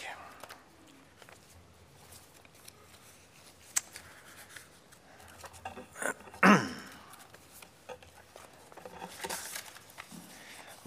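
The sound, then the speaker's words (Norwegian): Papers are shuffled and sorted, with soft intermittent rustles and a few sharper crinkling bursts as sheets are handled and tapped together. “Bare få orden på papirene først.”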